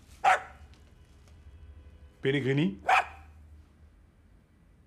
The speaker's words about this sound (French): Bon, ok, oui, je lui ai appris à aboyer quand il entendait ce nom-là, mais c'est vieux, ça.